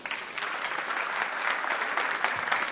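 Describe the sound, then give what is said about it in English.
A crowd at a Christian worship service claps steadily and continuously, a dense, even wash of applause that holds at a consistent level from start to finish, with no voices standing out. “Give him a big round of applause.”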